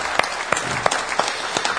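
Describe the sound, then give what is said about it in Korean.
An audience applauds in a church, giving a round of applause in glory to God, a dense wash of clapping from many hands with a few sharper claps standing out at irregular moments, steady and fairly loud throughout, with no voices. “지금까지 아, 이 모든 언약의 여정을 신이 인도하신 성삼이 우리 하나님께 영광의 박수를 올려 드립시다.”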